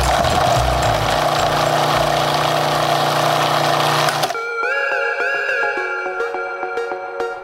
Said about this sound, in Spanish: Elige una o varias verduras, espinacas, apio, brócoli, pepino, zanahoria. Elige una o dos frutas, manzana, plátano, kiwi, piña, melón, aguacate, limón, mango, melocotón. Añade agua y bate hasta que los ingredientes se mezclen de forma homogénea.